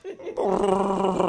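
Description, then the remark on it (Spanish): A person imitates the roar of Chewbacca, the Wookiee: a short, loud, warbling growl that starts after a brief low murmur and holds for about a second. “Oh. Chubaca.”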